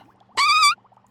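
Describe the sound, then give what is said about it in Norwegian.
A single short, squeaky fart with a high, tight, reedy tone lasting about a third of a second. It is fairly loud, with quiet background around it and no talking. “Promper kan jo ha alle slags lyder.”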